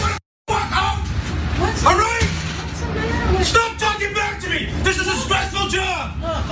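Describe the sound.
Inside a moving bus, a steady low engine rumble sits beneath several passengers talking loudly and over one another, the raised voices continuous after a brief silent gap at the start.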